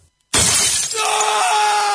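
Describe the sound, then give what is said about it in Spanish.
A sudden loud crash of a phone breaking, glass shattering in a bright burst, then lingering tinkling and a sustained ringing tone as the pieces settle. “¿Se te rompió el celular?”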